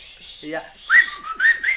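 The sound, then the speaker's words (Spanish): Someone tries to whistle, producing mostly breathy, airy hissing with a few short, thin whistled tones breaking through near the end. Fairly soft, no talking. “Mira, o silbas o dices ¡Azúcar!”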